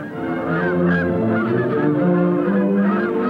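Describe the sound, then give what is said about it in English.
A large flock of migrating geese honks continuously, many overlapping nasal calls forming a dense, steady chorus, fairly loud, with no voices present. “The birds of the world travel thousands of miles with no thought for the political boundaries they cross.”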